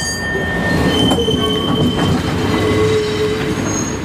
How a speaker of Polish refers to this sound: Tramwaj e, łatwo rozpoznać, zabytkowy pojazd oklejony plakatami kursuje codziennie do niedzieli przez Ochotę, Centrum Pragę i Wolę.